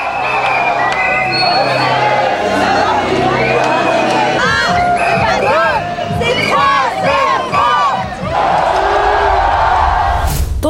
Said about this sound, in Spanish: Francia, campeón de la decimosexta edición del Mundial de Fútbol. Los festejos en la calle fueron interminables,